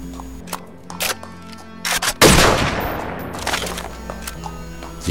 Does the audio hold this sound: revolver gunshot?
yes